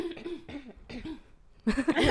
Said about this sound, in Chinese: 一起咳嗽可以一起剪掉